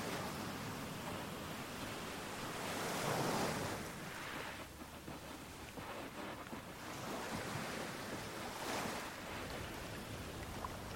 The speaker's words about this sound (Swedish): Ett litet vågskvalp sköljer upp över dina bara fötter och drar sig sedan tillbaka ut mot havet.